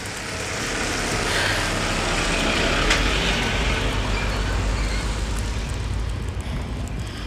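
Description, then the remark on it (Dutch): A heavy truck rumbles past, its loud, broad engine roar swelling and holding steady for several seconds before easing slightly, with no talking over it. “Even wachten hoor, komt de vrachtwagen voorbij.”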